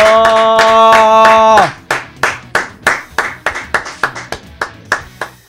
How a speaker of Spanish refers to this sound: aplauso